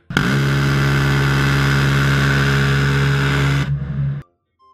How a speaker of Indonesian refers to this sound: Buat konteks aja, senjata anti aircraft ya atau anti pesawat yang biasanya ada di kapal perang yang suaranya begini nih.